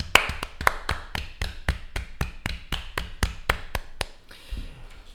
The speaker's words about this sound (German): Äh, ich finde das mit dem Klatschen völlig, völlig gut. Machen wir das. Ja, finde ich gut, aber ich würde ich würd sagen, wir, wir klatschen und dann, ob es eine Minute wird, schauen wir mal.